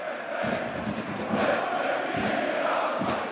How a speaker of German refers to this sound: Schon jetzt, bevor das Spiel begonnen hat, hebt sie ihre Hände in die Luft. Sie singt, hüpft und klatscht im Rhythmus der Kurve.